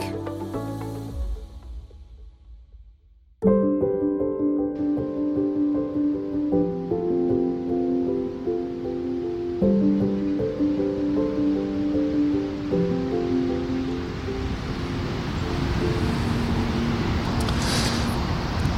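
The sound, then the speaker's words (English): A steady, broad roar of thousands of gallons of water gushing over a dam spillway at Croton Gorge Park on a beautiful day of about 80 degrees sits beneath melodic instrumental music and swells louder toward the end. “the sound that you're hearing right now is thousands of gallons of water cascading, gushing over the side of the spillway because we are at Croton Gorge Park here on an absolutely beautiful day.”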